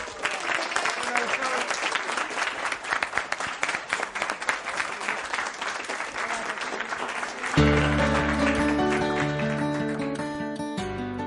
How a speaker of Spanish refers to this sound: Así que acompáñenos, porque ya estamos aquí en el colegio y para que usted me crea le vamos a pedir a nuestra audiencia en vivo un gran aplauso por ustedes mismos.